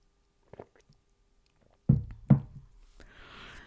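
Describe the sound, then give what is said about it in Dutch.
Someone handles a glass and takes a sip of water: a couple of dull knocks of the glass, then a soft, airy sip sound, with no talking. “Ik geef even een slokje water.”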